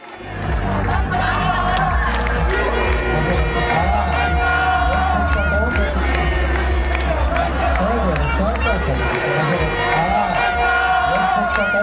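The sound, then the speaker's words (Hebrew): A large crowd of young people celebrates in Rabin Square in the evening after the new government was approved by one vote, a loud, steady roar of cheering and voices with music or singing running through it for the whole stretch. “בערב, כשהממשלה עברה על חודו של קול, עיקר תשומת הלב עברה לחגיגות המאולתרות והמוזרות, יש לומר, בכיכר רבין.”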